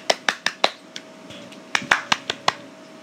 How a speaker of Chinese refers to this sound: 那如果你愿意找原因的话，我真的是在这边给你拍拍手。